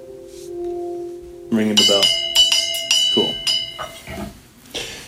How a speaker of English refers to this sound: Okay, you can ring a bell.